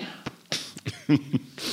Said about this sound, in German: Ihr hustet schon im Duett, das ist echt.